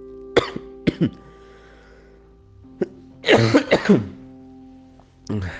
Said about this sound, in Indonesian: batuk kering jadi gatal banget.